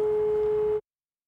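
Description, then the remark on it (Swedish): A single steady electronic tone from a door intercom phone, rung by someone standing in front of the gate, sounds for under a second, then cuts off abruptly into silence, with a faint hum of background noise underneath. “Då ringer vi på luren där.”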